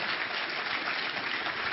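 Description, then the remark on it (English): A church audience claps hands steadily, giving the Lord a hand clap during a sermon, a dense continuous patter of many overlapping claps with no clear rhythm, fairly loud throughout and with no voices standing out. “Somebody give the Lord a hand clap that you don't have to be here.”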